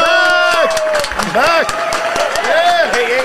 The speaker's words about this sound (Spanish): Corillo, me lo reciben con un fuerte aplauso a Los de Los Live.